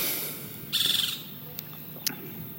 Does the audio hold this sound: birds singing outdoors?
yes